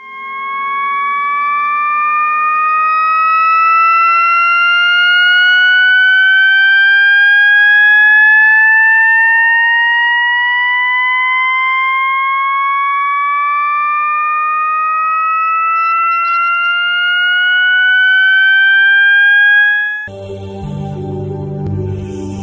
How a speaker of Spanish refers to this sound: Por ejemplo, vamos a escuchar unos segundos un sonido generado por ordenador y pensad si para vosotros es un tono que continuamente sube y sube y que va increyendo.